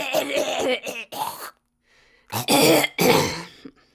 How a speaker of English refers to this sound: Get all those coughs out now. I did. Surprisingly. So that way I don't have to edit them out after.